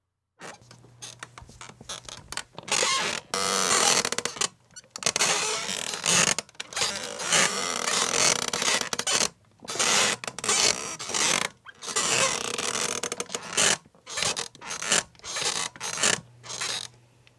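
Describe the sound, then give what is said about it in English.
A squeaky office chair creaks and groans over and over in irregular bursts, fairly loud, with short pauses between movements and no one speaking. “Yes, it's a bit squeaky, or it was, but it might be gone, but it's not forgotten.”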